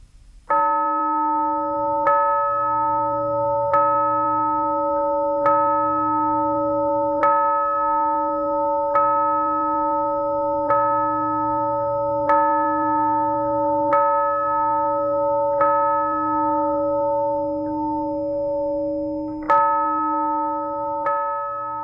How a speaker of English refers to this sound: It's actually very somber right now. There have been people gathering for more than an hour as they waited for this bell ringing here at the crypt where Dr. King and his wife, Coretta Scott King, are laying here.